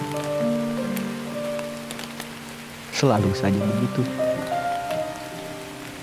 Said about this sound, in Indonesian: Hujan